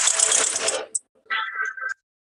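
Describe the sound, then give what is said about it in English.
A loud, buzzy blown raspberry layered with a roaring airplane engine drone, cutting off abruptly, followed after a short gap by a brighter, processed tonal burst of an added chord, the opening of a music track. No talking. “So that's actually me blowing the raspberry with an airplane engine on top of it.”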